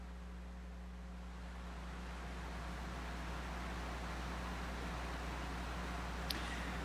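Heavy afternoon rain pours down in the west and southwest in a steady, dense rush of hiss with no letup, accompanied by a low constant hum underneath; no one speaks.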